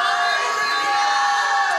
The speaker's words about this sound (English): Somebody shout hallelujah.